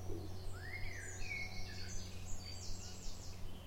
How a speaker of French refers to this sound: Le bosquet ne contenait finalement que des merles qui l'accueillirent de leur chants moqueurs.